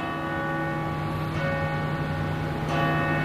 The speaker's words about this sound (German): Die Glocken der Gethsemane-Kirche läuten Sturm.